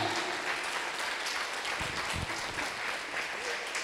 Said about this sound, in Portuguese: Bendito seja o seu nome, aplauda o nome dele aqui, Ele reina.